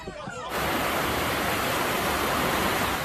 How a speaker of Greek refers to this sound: Ακραία καιρικά φαινόμενα πλήττουν τη βορειοδυτική πλευρά τη Νέα Υόρκη. Τα ορμητικά νερά έχουν σαρώσει τα πάντα στο πέρασμά του.